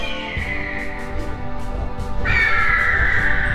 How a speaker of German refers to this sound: Die Adler! Die Adler kommen!